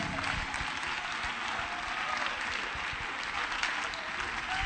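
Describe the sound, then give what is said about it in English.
An audience claps their hands in praise at a worship service, steady, dense applause continuing for several seconds with no break and no voices standing out. “Clap your hands and give him praise.”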